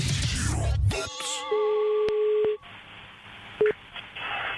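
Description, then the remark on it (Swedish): A telephone call being placed to a petrol station: after a brief noisy burst, steady electronic tones sound, then a long ringing tone and a short beep, fairly loud, with no talking. “Idag ska hon ringa till en bensinmack och prata om ma, eh, att, toalettbesvär.”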